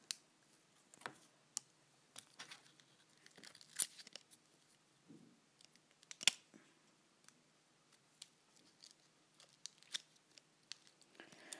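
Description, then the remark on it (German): Scissors snip repeatedly through stiff plastic battery packaging, with sharp irregular cuts, crinkling and occasional tearing, fairly quiet, no voices. “Aber oh, jetzt muss ich es wieder mit der Schere machen. Jetzt habe ich Angst, dass ich die Batterien kaputt mache.”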